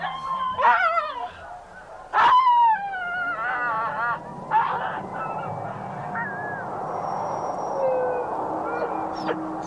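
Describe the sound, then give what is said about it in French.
Many sled dogs, chained and staked out on the ice while a man readies a sled before departure, howl and yelp excitedly at once, their overlapping, wavering cries rising and falling over a constant noisy background, with a few sharp louder yelps standing out. “Les chiens sont surexcités.”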